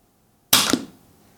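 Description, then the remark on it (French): A toy projectile hits a table and glances off a chair: one sharp clatter followed quickly by a second knock, then a brief fading rattle. No one speaks. “Ouh, ça n'a pas trop fait de bruit, je sais pas, ça a ricoché sur la table, ça a ricoché contre la chaise, ça a ricoché.”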